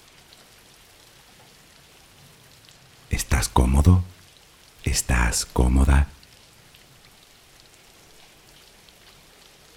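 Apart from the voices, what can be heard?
rain falling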